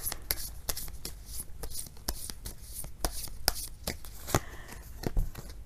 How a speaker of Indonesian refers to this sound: Tadi waktu ngocoknya kayak yang lama dan kayak yang dalam ya, deep thought gitu